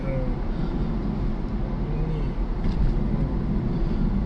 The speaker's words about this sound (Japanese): 車危ないな急に